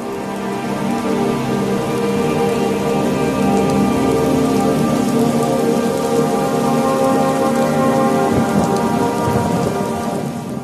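Steady, dense rain pours continuously, with low rolling thunder rumbling in the background and swelling briefly near the end. No voices, just the constant hiss of the downpour.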